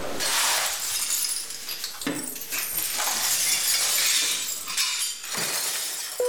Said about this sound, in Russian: Ты вот слышишь, как вот это вот грохот камней, которые выкидывают туда-сюда, кидают, и подметают стекла. Этот звон тоже вот очень так хорошо слышен. Звон стекол после обстрелов.